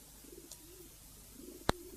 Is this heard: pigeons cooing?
yes